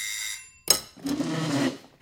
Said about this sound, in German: Und plötzlich klingelt es an der Tür.